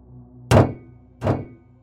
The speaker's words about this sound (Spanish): Los golpes resonaron. Una puerta crujió por un impacto.